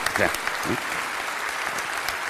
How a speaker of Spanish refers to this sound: quieren aplaudir, aplaudan, pero aplaudan fuerte, o sea, si no, no, si no, no aplaudan.